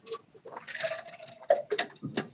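Someone drinking water from a Yeti flask with a Hank Strange logo: a few sharp clicks from the container, a brief slosh of liquid, and quiet gulping sounds over a couple of seconds.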